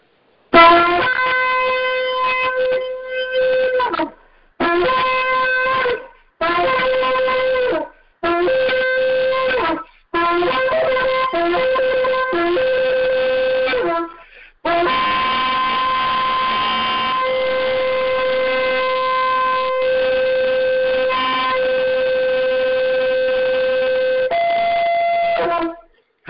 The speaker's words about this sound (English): We want to sound the shofar, beat drums, clap hands, sing songs, and sound the shofar.